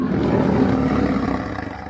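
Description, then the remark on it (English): A lion roars in one long, deep, rumbling bellow that stays loud before tapering off slightly toward the end. “So that means your cat at home can purr, but will never be able to roar like a lion.”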